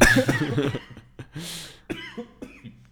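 A person coughs after choking on something, in a few harsh, sputtering bursts, fairly loud at first, then trailing off into softer throat noises and breathy hacks.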